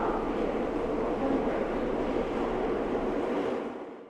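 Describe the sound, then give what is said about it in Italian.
Steady, loud rumble of a metro train in motion during a morning ride to a studio, a dense roar of wheels and carriage noise that holds constant before easing slightly at the end. No voices. “Tomo un café y 30 minutos más tarde estoy en el metro en dirección al estudio.”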